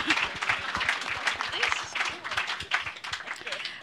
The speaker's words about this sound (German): Also ganz kurz, ein Applaus für diese Performance. Kann man schon mal klatschen. Kann man.